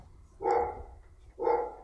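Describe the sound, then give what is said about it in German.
A dog barks twice, two separate woofs about a second apart, moderately loud, with no one talking over them. “Wenn der Hund sich beruhigt hat, dann geht es auch gleich weiter.”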